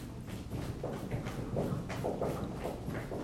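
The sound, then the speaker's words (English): Heels in shoes stomp rapidly and steadily on a hard floor during a relaxation exercise, a run of a dozen or so dull thuds with a loose, galloping rhythm and no talking. “As you wiggle your toes in your shoes, relax your toes and clomp your heels, stomp them down.”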